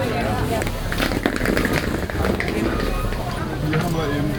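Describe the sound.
A busy outdoor market, the Winterfeldtmarkt in Berlin: a steady wash of overlapping voices and stall chatter, with vendors calling out fruit offers, occasional clatter and shuffling footsteps mixed in, continuous throughout.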